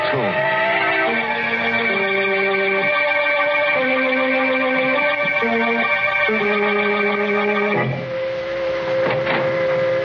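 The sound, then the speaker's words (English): A man, suspected to be the slasher, whistles an eerie, wavering tune of long held notes that step up and down in pitch, steady and loud throughout with no talking, shifting abruptly near the end. “But we couldn't find the guy who whistled that queer”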